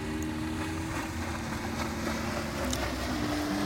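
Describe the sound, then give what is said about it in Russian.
A small fishing boat with fishermen aboard passes by, its motor droning steadily, a low humming engine over a broad wash of wind and water noise, holding an even loudness throughout with no voices. “Да, мимо нас поехала лодочка с рыбаками.”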